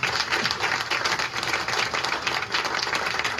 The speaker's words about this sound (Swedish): Paus för applåder har jag skrivit här i, i anteckningarna. Och den kommer här.